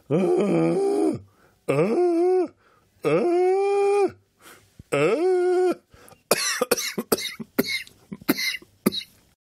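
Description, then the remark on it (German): Four long, drawn-out passionate moans from a single voice, each rising and falling, then a rapid series of short, breathy, heavy pants and gasps. No words are spoken. “Oder wenn ich so Ah, tief schnaufe, tief und Leidenschaft.”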